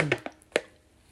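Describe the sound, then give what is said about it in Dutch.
Someone sitting in bed takes a quick sip of water: a few short, wet clicks and a soft gulp in quick succession, then quiet. No one speaks. “En eh, nou, even een slokje water hoor.”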